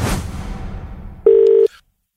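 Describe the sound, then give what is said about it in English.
A soft, fading rush of noise gives way to a single loud electronic beep, like one key tone from a telephone being dialed, lasting under half a second before silence. “So we better get on the phone and uh, get on the blowing out of our, our good mate Angry.”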